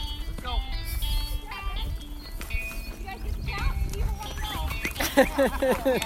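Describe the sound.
A man hollers drawn-out calls to drive cattle, his voice rising and falling against an outdoor backdrop of shuffling hooves and animal noises, with louder, rapid shouts near the end.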